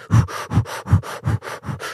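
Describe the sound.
Rapid inhaling from a balloon held to the lips: about eight quick, breathy pulls in a steady, fast rhythm, each a harsh airy rush of moderate loudness, with no talking.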